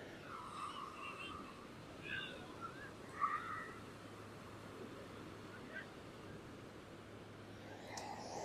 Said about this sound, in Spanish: Los dejo unos segundos oyendo el mar, que espero que se oiga y que se oiga bien.